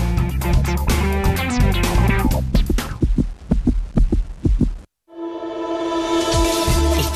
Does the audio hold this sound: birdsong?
no